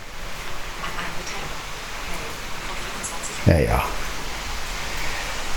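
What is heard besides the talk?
rain falling outside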